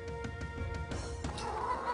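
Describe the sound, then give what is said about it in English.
Several hens rescued from a farm cluck in short, overlapping bursts, with a steady low hum and faint tonal whine running underneath throughout. “So these chooks were taken from a farm.”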